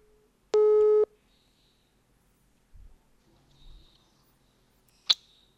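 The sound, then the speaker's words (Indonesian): A phone's ringing tone from an outgoing call being placed sounds once as a single loud, buzzy beep of about half a second, followed by near silence with faint low thumps and a sharp click near the end. “Oke, kita telepon aja yuk dia yuk.”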